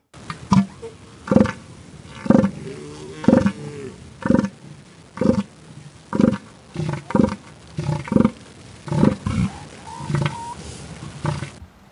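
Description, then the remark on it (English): In a recording, a bull animal vocalizes in a steady series of deep, throaty pulses, roughly one burst per second. The calls are loud, with no talking over them. “So, what are these bull sounds that he's talking about? Let's listen to a recording.”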